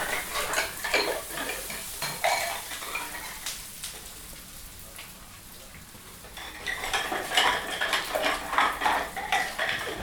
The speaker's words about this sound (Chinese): 你认得出来这个声音吗？对，没错，就是洗碗哦，一直不断的洗碗，在洗碗。